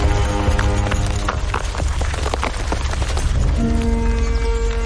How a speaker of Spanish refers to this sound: Fuera del castillo y bajo un brillante sol, el duque monta a caballo junto a su séquito.